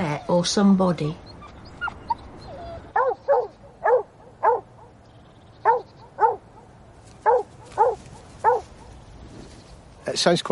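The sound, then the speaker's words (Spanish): A dog barks playfully in a lively series of about a dozen short, sharp yips, fairly loud with brief gaps between them, after a whiny, vocal opening. “Parece un ladrido bastante alegre. Es como si estuviera jugando.”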